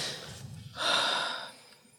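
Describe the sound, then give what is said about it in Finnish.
An airy deep breath: a softer intake leads into a louder, sustained rush of air lasting under a second, then fading out. No talking. “Anteeksi, mun pitää ihan hengittää tässä. Hengitä syvään.”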